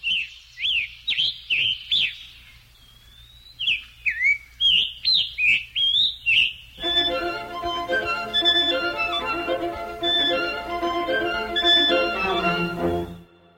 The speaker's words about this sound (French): c'est à l'évidence le chant d'un Scarlet Tanager, un piranga écarlate, un passereau de la famille des cardinalidés, dont le plus typique est le cardinal rouge. Écoutons le chant de l'oiseau, puis le passage du quatuor qui reprend le chant.